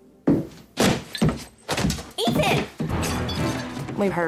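Someone tumbles down a staircase: a run of heavy, uneven thuds and bangs in quick succession, loud, ending in a longer rumbling crash.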